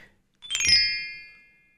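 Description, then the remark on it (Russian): A single bright, bell-like chime of a Balinese instrument is struck once and rings out clearly, its shimmering metallic tone slowly fading away. A faint tone is heard before the strike; no voices. “Вот опять-таки, да, колокольчики всякие разные.”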